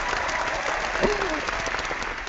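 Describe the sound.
A crowd in an auditorium applauds steadily, a dense, even wash of clapping that fills the whole stretch, with a brief voice rising out of it midway.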